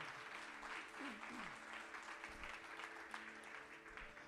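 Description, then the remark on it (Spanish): A crowd applauds the Lord steadily for several seconds, a dense wash of many hands clapping, with a few scattered voices and a brief shout rising over it. “Vamos a darle ese aplauso fuerte al Señor si usted lo cree.”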